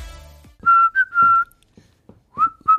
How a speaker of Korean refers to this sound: 아, 휘파람 소리가 매력적인 노래.